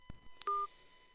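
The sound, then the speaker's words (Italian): Telephone dialing to call back a caller after a choppy connection during a live broadcast: a low click and a quick high blip, then a single steady two-tone keypad beep lasting about a fifth of a second, fairly loud, with no talking. “Allora aspetta che provo a richiamarti, eh, provo a richiamarti un attimino, stai lì.”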